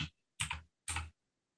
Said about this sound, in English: is typing. I am, and this is going to be it.